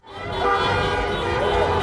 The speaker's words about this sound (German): Lautes Hupen in mehreren Städten, wie hier in Frankfurt als hätten sie eine Weltmeisterschaft gewonnen. Mit Autokorso und großem Jubel haben Türken in Hessen gefeiert.